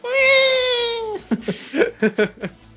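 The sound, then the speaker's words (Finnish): A voice mimics a hungry child crying: one long, drawn-out wail that slowly drops in pitch, followed by a short run of choppy, sobbing bursts, fairly loud. “Ja lapsi vaan itkee siellä.”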